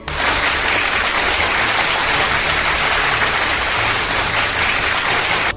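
Loud, sustained applause from a crowd at an honors ceremony, a dense steady wash of clapping that holds at an even level for several seconds with no voices over it.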